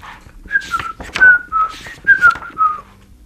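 A person whistles a cheerful, bouncy melody of short sliding notes, clear, with no talking, lasting a few seconds, for a hedgehog in a story whistling under a pear tree in a forest.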